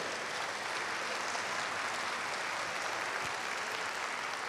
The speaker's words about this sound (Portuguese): Quer aplaudir ao Senhor? Vamos lá, mas glória a Deus.